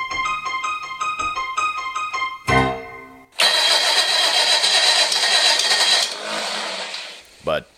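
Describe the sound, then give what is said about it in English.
A small Crosley car engine cranks briefly, then catches and runs with a loud, steady buzzing rumble that settles to a lower idle before a short final rev. “As I noted, someone had tampered with my Crosley. Out on the open highway, we can't seem to do much more than 15 miles an hour.”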